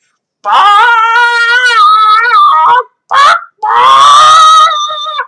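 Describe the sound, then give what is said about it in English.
A person loudly imitates the morning squawking of a bird from their flock, a honking, goose-like squawk in three harsh, sustained bursts, the first long, then a short one and another long one, with no spoken words. “I'm going to do an impression. I hope this isn't too loud on the microphone, but this is what Meatbutt sounds like”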